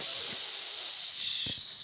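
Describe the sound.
A voice imitates a spray can during a breathing exercise, making a long, steady hiss, loud, fading slightly toward the end, with a brief breathy sound near the finish.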